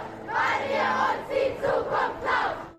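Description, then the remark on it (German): A large crowd at a worldwide climate strike protest chants in unison, rhythmic shouted phrases rising and falling in repeated bursts, loud, with a dense wash of many voices carrying through the whole stretch. “Heute war nämlich mal wieder weltweiter Klimastreik”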